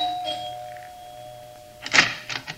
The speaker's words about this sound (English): We took the elevator up and rang the bell.